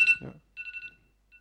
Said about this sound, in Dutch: Excuus, dat was een telefoontje.